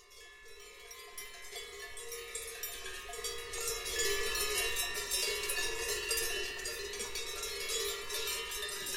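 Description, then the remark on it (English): Cowbells clank and jangle continuously from a distance, a dense, irregular metallic ringing that swells slightly midway, with no voices present. “Distracted by sounds of distant cowbells, they would become lethargic, morose, and have trouble sleeping.”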